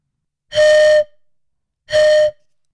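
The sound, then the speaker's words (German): Two loud, breathy whistling toots made by blowing across a hollow Japanese knotweed stem, each about half a second long with a short pause between, hooting like an old steam whistle. “Was hat so krass dicke Stängel, die auch noch hart wie Pappelholz werden, dass man darauf Pan spielen und Flöte üben kann?”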